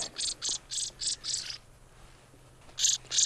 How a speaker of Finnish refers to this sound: Siellä on punarinta alhaalla ihan. Ja renkaaton kaveri. Vähän kommentoi. Joo, kyllä niillä välillä on pikkasen tällaista vastaan sanomista, mutta onneksi he selviävät tästä käsittelystä aika vähällä.